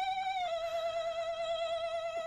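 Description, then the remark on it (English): A voice imitates the vintage shaking ghost noise of old Halloween decorations and toys, holding a single high, buzzy, nasal tone with a slight waver for about two seconds at a steady, moderate level, with no other talking. “The uh, the old uh, vintage shaking ghost noises from the old Halloween uh, decorations yeah, and yeah, toys.”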